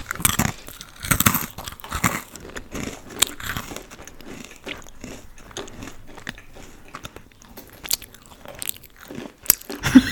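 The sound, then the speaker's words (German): Loud, crunchy chewing by a person eating while talking, done as ASMR, with repeated bites and crackling crunches in an irregular rhythm, and no talking over it. “Ähm, also sorry, wenn ich jetzt schmatze, aber wenn ich gleichzeitig rede und esse, dann muss man halt irgendwie ein bisschen schmatzen.”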